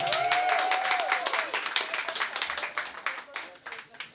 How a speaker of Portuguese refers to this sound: Uma salva de palmas para todo mundo aqui.